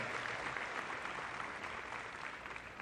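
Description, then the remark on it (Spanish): A crowd in Pore, Casanare, applauds to honor the memory of the independence hero Juan Nepomuceno Moreno, a dense, even clatter of many hands clapping at a constant, fairly loud level for the whole stretch, with no voices rising above it. “Un aplauso para honrar la memoria de este héroe, de esta tierra, de esta tierra casarareña.”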